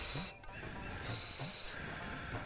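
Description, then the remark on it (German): Steady breathy blowing across hot tea to cool it, a soft continuous airy hiss with a brief pause near the start; no one speaks. “Blasen, dass es nicht so heiß ist.”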